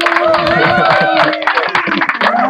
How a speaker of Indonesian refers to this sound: mana dong tepuk tangannya gimana sih